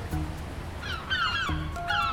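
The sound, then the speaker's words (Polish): Several harsh, squawking gull calls ring out in quick succession, loud, over a steady low background rumble like wind or surf, at the seaside in Kołobrzeg. “mewy i nadmorski klimat potrafi zauroczyć i uzależnić nawet zimą.”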